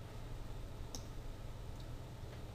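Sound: computer mouse clicks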